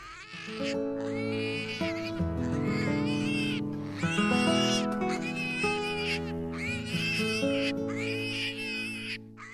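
Pigs squeal and grunt in a loud, continuous overlapping chorus, high-pitched cries rising and falling throughout with no pauses and no one talking.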